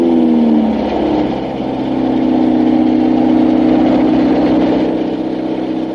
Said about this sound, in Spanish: la mujer que está mordisqueando una ramita ve a lo lejos otro automóvil que avanza por el camino. Es un elegante coche negro que se dirige al pozal de la culebra.